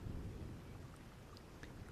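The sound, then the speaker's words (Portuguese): Steady rain hisses with a deep, rolling rumble of thunder underneath, a continuous low roar filling the background with scattered drip-like ticks on top. “Mas agora não dá para ir com essa chuva.”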